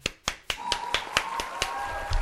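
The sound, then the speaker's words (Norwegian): A quick, steady run of hand claps, roughly ten sharp bright smacks at an even pace, with a faint sustained tone humming underneath, clapping in and congratulating the 2020 Eliteserien prediction contest winner. “Ja, du klapper den inn. Jeg klapper den inn.”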